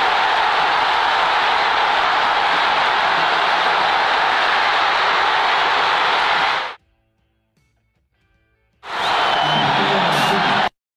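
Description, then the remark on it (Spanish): A loud stadium crowd roars steadily during a football match as fans react to a play, holding back a shout; a dense wash of voices that cuts out abruptly for about two seconds, then surges back just as loud. “Escucha a la gente ahorita que decían en la jugada de Soteldo cómo se quedaron con ganas de gritar algo”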